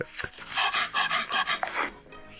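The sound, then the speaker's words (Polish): A virtual 3D bulldog shown on a phone through Google pants in quick, rhythmic heavy breaths, about a dozen huffs in a steady run, played back through a small, tinny phone speaker with no one talking. “Te wszystkie dźwięki, które teraz słychać, to są z telefonu”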